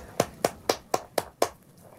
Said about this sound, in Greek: Πόσο χειροκρότημα ακόμα να σου ρίξω.